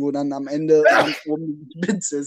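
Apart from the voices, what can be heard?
sneeze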